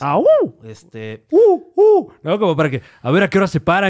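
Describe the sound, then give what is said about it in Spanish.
A voice mimics a donkey's bray with a few loud, rising-and-falling hee-haw calls in quick succession, followed by ordinary talking. “O sea, el burro haciéndole,”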